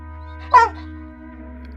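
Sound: dog barking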